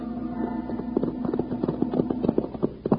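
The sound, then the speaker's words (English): Horse hooves clip-clop at an easy walking pace as Wild Bill Hickok and Jingles ride into the little cow town of Danville, a steady run of sharp, hollow knocks at moderate loudness over a faint, constant low hum, with no voices. “after they left Rody and Monk at the cave, Wild Bill Hickok and Jingles rode into the little cow town of Danville looking for Sheriff Blake.”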